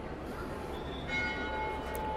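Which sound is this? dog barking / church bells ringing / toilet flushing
church bells ringing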